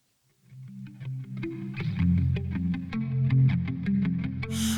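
A pop song fades in quickly, with a steady, driving drum beat over thick bass and processed, effect-laden guitar chords. It plays loud and close, with no singing yet.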